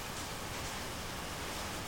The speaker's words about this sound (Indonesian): wah kedengeran suara hujannya ya kalau gitu saya ngomongnya semakin keras